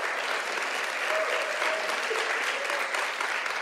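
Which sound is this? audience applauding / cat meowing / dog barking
audience applauding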